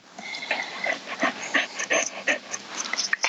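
A dog pants right up against the microphone, quick breathy huffs in a steady rhythm, loud and very close, with no talking over it.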